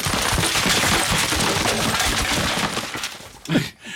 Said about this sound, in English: Yeah, that's not really the sound. I made that up because there is no real good sound for Tommy Tuberville falling down the stairs, but we can imagine that it sounded kind of like this.